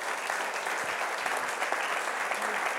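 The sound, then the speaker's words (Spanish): Sustained applause from a crowd for Jesus, a dense, steady wash of many hands clapping at an even loudness throughout, with no voices standing out above it. “Vamos a darle un aplauso a Jesús.”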